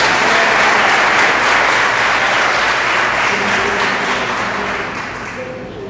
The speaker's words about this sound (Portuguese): Aplaude a Jesus pela vida dele.